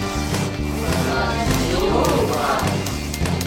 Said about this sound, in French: Nous venons d'entendre le jingle invité